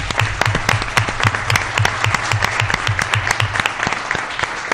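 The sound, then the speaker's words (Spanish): A crowd applauds steadily at the Agro Popular radio programme, as a tribute in memory of Alejandro Fede: many hands clapping in a dense, continuous patter with sharp individual claps poking through, sustained at an even, fairly loud level throughout. “Pues vamos a tener eh, ese recuerdo, Alejandro Fede, en forma de un aplauso de todos los que estamos aquí.”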